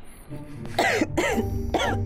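A man gives three harsh, raspy coughs that burst out loud in quick succession, the first two nearly back to back and the third after a brief pause, sounding partly voiced and gruff.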